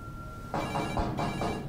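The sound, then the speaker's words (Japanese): A telephone rings with a rapid, trilling bell in repeated bursts, fairly loud, starting after a brief quiet moment with a faint steady tone. No one speaks. “君はこの後どうする電話を取りに行くそれとも玄関のドアを開けに行く”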